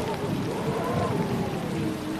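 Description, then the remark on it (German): Steady rain hisses continuously with a dense patter of drops as a storm sets in, washing dirt off laundry, while a soft voice murmurs faintly underneath. “Und du siehst, wie der Regen anfängt, die Wäsche zu reinigen wie der Schmutz von der Wäsche herunterfließt”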